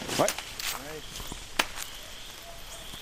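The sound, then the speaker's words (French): A machete hacks through vegetation in a few sharp strikes, spaced irregularly, to open a path. Footsteps and leafy rustling sound between the strikes, with brief faint voices in the background. “Machette à la main, Stéphane Maillet ouvre le chemin”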